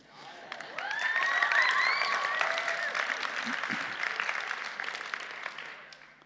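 An audience breaks into steady applause for the evening's meeting leader, a dense wash of clapping that swells quickly and holds for several seconds before thinning out, with a few faint whistles or cheers rising above it early on.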